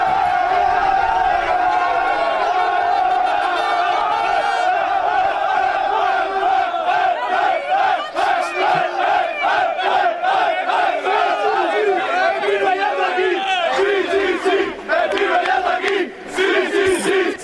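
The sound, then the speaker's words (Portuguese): A dense crowd of football fans chants loudly and continuously in unison in an airport boarding area, voices rising and falling in rhythmic waves with occasional shouts, as they mob an arriving Englishman. “um inglês chega ao aeroporto e de repente abraçam-no, selfies e eh, cânticos na zona de embarque e o homem é engolido por uma multidão.”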